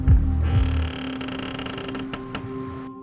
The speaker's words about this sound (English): He gives me the key. I'm unlocking it. It's jarred because of the rust. So we start hammering it so I'm feeling a bit like nervous. My hands kind of like shaking. And it opens, and it's like this creaky door opens.